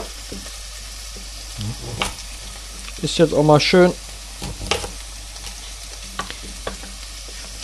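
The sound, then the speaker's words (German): Cleaned and peeled vegetables being chopped with a knife: sharp, scattered knocks on a cutting board at an irregular pace, with a brief stretch of someone talking in the middle. “Wenn die Sachen geputzt und geschält sind, wie gesagt, ist dann an für sich nur noch diese Schnibbelei her, die ihr jetzt von mir hört.”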